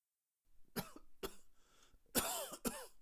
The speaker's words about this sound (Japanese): その夜も、やはりごほごほという咳が続き、やがて、と小さな音がして、夫が爆発した。